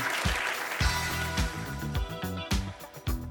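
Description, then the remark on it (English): An audience at Climate One claps steadily after a lightning round, a broad wash of applause, while a rhythmic bass-heavy music cue plays underneath and carries on alongside it. “All right, let's give them a round for getting through that gauntlet of the lightning round here at Climate One.”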